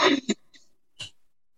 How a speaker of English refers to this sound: little sniffles, sniffles.